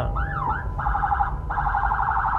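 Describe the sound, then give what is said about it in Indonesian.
An ambulance siren wails, opening with a rising and falling sweep and then switching to rapid, pulsing electronic bursts over a low traffic rumble. “sorry bentar ya ini ada ambulans sedikit kepotong”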